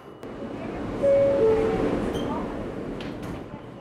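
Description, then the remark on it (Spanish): A subway train rumbles along with a steady low roar, a brief high tonal whine from the wheels or motor rising over the noise, and faint murmured voices in the background. “Los primeros días me sentía especial, como de otro planeta andando en metro, siendo parte de ese trajín citadino.”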